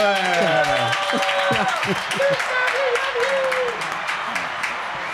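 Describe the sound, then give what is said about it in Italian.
Steady audience applause at an evening event at Asinitas in Rome, a dense, fast patter of many hands clapping, with a voice calling out over it near the start. “dire e un applauso questa volta lo facciamo bello pulito grazie beh su Asinitas qui si è si sono spellati le mani.”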